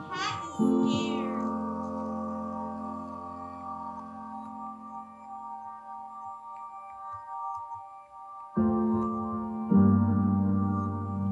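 A frightened cat lets out one quick, wavering meow at the start, followed by a long, steady droning tone that cuts out briefly and then returns. No one speaks.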